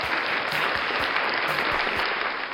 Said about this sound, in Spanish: Unos aplausos para la pipa, a ver si jala.